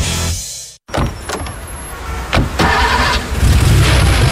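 A rental car from Salfa Rent: the engine cranks and catches after a brief silent cut, then revs steadily and louder as the vehicle pulls away, loud, with no voices.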